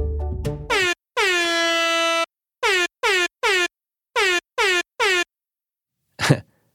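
Loud air horn blasts spelling the word "ass" in Morse code: a short toot and one long blare, then two quick groups of three short honks, ending with a brief noisy burst.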